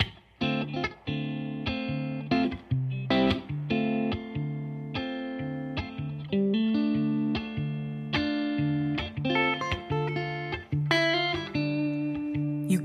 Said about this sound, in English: they got together and recorded this cover version of one of the great guitar songs of all time.